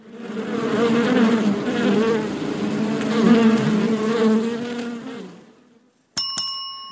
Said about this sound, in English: Busy Bee, that's right. The first clip was of Busy Phillips, and then, of course, the sound of a bee.